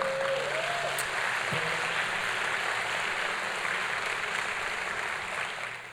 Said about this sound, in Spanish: Recíbelo con un fuerte aplauso, por favor.